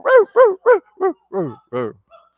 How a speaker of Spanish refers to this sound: Entonces ella, pues que está así como ya, que no sabe qué hacer y siente como que le está ladrando el perro abajo y demás, y pues hay que sacar el perro a pasear y se va a correr.